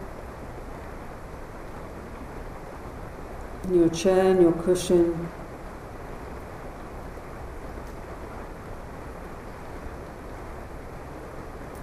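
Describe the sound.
A steady, even hiss of rain falls throughout, soft and constant in the background, while a calm voice guiding a seated meditation speaks briefly over it partway through.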